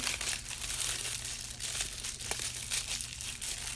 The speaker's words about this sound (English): I want to start with the hat box. I'm going to go ahead and open it up. And I like how they use tissue paper in here.